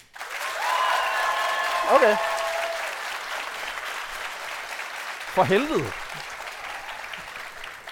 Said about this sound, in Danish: Øhm, så jeg tænker egentlig bare, at øh, alle, der har lyst til at høre min historie, de klapper nu. Mm. Ja. Og alle dem, der gerne vil høre min historie, de klapper nu.